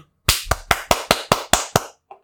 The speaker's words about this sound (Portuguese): Bater as famosas palmas aqui.